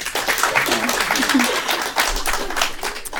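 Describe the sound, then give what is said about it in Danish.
An audience claps steadily for about three seconds to vote, with those who do not believe in a theory clapping. A dense, even patter of many hands at a constant moderate loudness, with a few voices faintly audible underneath. “Dem, der ikke tror på den, klapper.”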